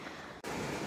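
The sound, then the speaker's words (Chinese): Heavy rain in Shenzhen drums on a windowsill in a dense, steady hiss of patter, with a brief dip just before the middle before the downpour returns slightly louder. No voices. “你们能听到我这个背景音是雨声吗？”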